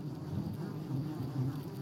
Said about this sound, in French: C'est le printemps sur la garrigue, mais ce qui emplit l'air, c'est un murmure, celui d'un nuage de mouches.